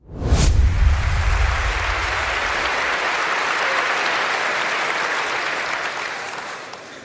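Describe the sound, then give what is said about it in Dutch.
A large crowd at a campaign event applauds and cheers loudly and steadily, a dense wash of clapping and voices that swells at once and holds for several seconds before easing slightly at the end. “It's not really Dutch to cheer this hard.”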